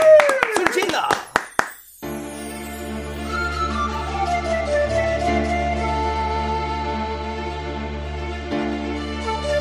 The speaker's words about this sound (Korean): 박수와 함성이요. 함성이요. 예.